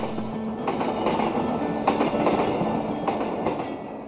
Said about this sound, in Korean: 이제는 추억의 특급 열차가 돼버린 새마을호의 운행소리 들려드렸습니다. 1969년 바로 오늘 새마을호는 관광호라는 이름으로 첫 운행을 시작했습니다.